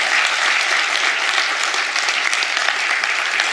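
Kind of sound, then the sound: crowd, round of applause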